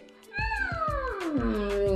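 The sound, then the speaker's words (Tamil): An elephant raises its trunk and gives a single loud, drawn-out trumpet call that slides steadily downward in pitch for about a second and a half, over a steady beat of low, muffled thumps. “அப்படின்னு தும்பிக்கையை தூக்கி ஒரு தடவை கத்திட்டு”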